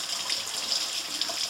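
water running

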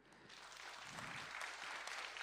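audience applause

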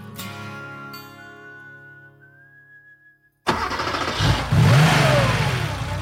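sports car engine revving

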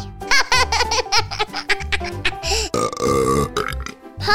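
burp

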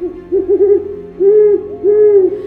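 owl hooting

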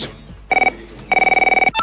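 telephone ringing

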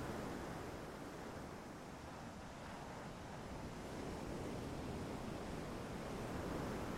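ocean waves

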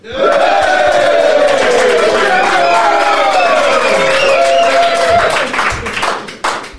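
audience cheering and applauding

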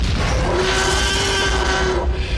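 dinosaur roar sound effect

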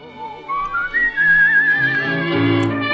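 whistling a melody

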